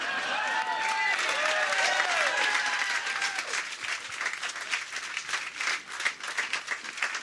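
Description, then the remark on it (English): Audience clapping fills the room, starting with loud applause mixed with whoops and cheers, then thinning out into scattered individual claps that fade toward the end. “Why are you clapping?”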